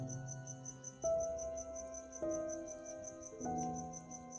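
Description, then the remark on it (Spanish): Crickets chirp at night in a steady, rapid high-pitched pulse throughout, while soft sustained musical notes swell in at regular intervals underneath. No one speaks. “Esto fue un episodio con música de fondo de los grillos, anoche”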